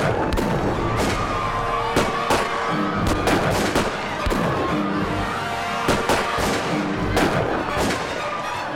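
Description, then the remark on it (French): A burst of gunfire as guards open fire toward Congressman Ryan's party: repeated sharp cracks at irregular intervals, some in quick clusters, over a steady background rumble and hiss. No voices. “Il a à peine le temps d'en aviser le député que les gardes se mettent à tirer dans leur direction.”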